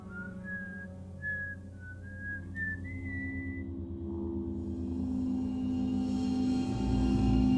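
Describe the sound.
Someone whistles a short melody of several sliding notes over a low, steady rumble; after a few seconds the whistling stops and the deep droning background swells louder.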